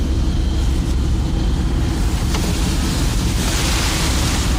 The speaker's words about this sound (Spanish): Ahora ya estamos conduciendo por un terreno completamente distinto. Hemos dejado la carretera, nos hemos adentrado en los caminos que normalmente son de tierra, pero como ha llovido, cuando hemos hecho esta visita al geoparque